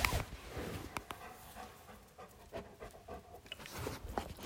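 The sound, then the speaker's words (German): Leo, a two-year-old Labrador, pants steadily as he stands beside the speaker, quick rhythmic breaths with a few faint clicks and shuffles, no one speaking. “Ich denke, man kann das hören, oder? Also das ist Leo, der stellt sich gerade hier neben mich.”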